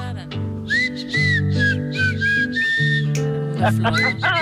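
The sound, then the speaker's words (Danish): A shrill, reedy whistle blown by a man on a grass blade, several wavering, squealing bursts, loud, with a buzzing lower drone beneath and a faint voice. “Nå, han laver shishiren. Ja. han sidder af shishi lige på den. Så er med græsstrået.”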